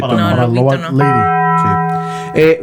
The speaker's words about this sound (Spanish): Mm, ya le tocamos su campana de Taco Bell.